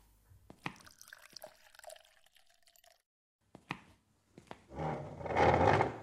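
A few sharp clinks and taps of glassware, then water pours steadily into a glass, the gurgling stream growing louder and fuller over about a second and a half. No one speaks.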